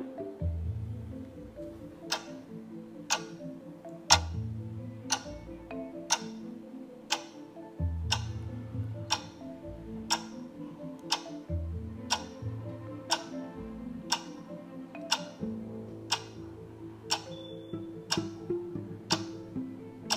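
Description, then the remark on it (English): A 30-second countdown timer for writing quiz answers ticks steadily, with sharp, even clicks just under once a second over a soft, low musical drone, continuing for about twenty seconds with no talking. “I'll give you 30 seconds to do this. And your timer starts now.”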